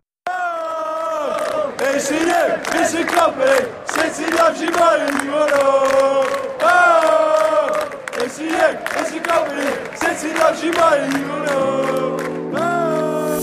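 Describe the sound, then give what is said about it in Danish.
A large crowd loudly sings a football chant in unison, the massed voices rising and falling in a steady, rhythmic melody that carries on without pause for over ten seconds. “Og vi slutter selvfølgelig af med en sang, og lad det være en company-sang.”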